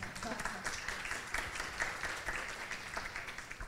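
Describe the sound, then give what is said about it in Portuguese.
A crowd applauds steadily to welcome a speaker to a talk, with dense overlapping claps forming a continuous, fairly loud wash of sound that holds throughout, mixed with faint cheers or voices underneath. “Uma palmas”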